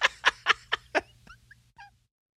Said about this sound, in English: Where's my duck call?